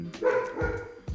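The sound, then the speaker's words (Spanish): The speaker's dog barks repeatedly in quick succession because someone has arrived, loud, with sharp bursts following one another over about a second and no one speaking. “Ese es mi perro ladrando, porque hay algo, alguien que vino.”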